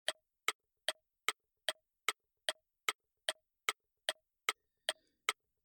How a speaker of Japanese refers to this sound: 時計が刻む音、チクタク、チクタクは英語でも似ているように tick tock t-i-c-k tick t-o-c-k tock tick tock と言います。